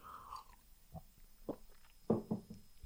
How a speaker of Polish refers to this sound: Po łyku kawy łyknę sobie łyka wody z witaminą C, poczekajcie.